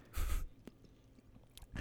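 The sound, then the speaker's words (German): Quiet crunching and chewing as someone eats a whole fresh coconut in Indonesia, with a louder bite at the start, a few brief mouth clicks, and another crunchy burst near the end. No one speaks. “So, jetzt ist es geschafft. Ja, das war lecker. Die hat übrigens 70 Cent gekostet. Eine ganze Kokosnuss oh. mit Wasser.”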